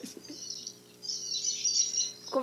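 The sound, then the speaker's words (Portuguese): Small birds chirping in a steady, busy twitter of high calls, growing fuller and louder partway through, with no one talking. “os é passarinhos você.”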